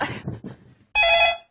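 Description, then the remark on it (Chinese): A telephone rings with a steady, bright electronic tone lasting about half a second, loud and clear after a moment of quiet, following some brief muffled voices. The call is from a political commissar. “老婆，我这个电话来的真不是时候，叫你呢。”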